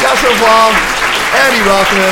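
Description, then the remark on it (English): A crowd claps steadily and loudly throughout for guest John Pomfret after a conversation, a dense wash of applause while a man speaks clearly over it. “Let's give it up to this terrific title, John Pomfret,”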